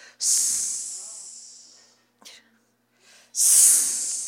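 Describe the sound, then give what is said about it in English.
A voice imitates men's hissing catcalls at a woman walking by: two long, sharp hisses separated by a short pause with a brief breathy click between them, and no other talk. “that was the, the, the calls by the dudes seeking her services.”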